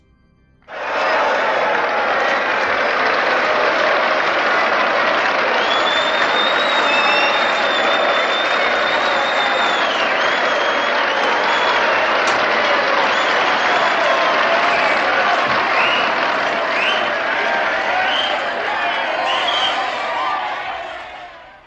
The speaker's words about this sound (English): chamber erupted into noisy applause. The grandmaster asked his delighted followers to settle down.